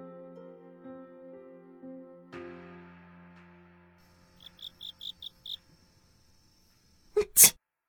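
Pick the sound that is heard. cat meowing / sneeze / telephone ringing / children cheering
sneeze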